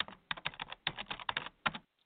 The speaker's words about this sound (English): Or comment or share our posts on Facebook, LinkedIn, or Twitter. Just a couple clicks, a little bit of typing